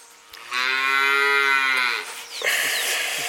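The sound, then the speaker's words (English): A free-range cow wandering free lets out one long, loud moo, a steady drawn-out low call lasting about a second and a half, followed by rustling outdoor noise. “I, I, think it's it's it's neat being here, and you, as you can hear, folks, uh, animals just kind of wandering free and uh, yeah, totally free range.”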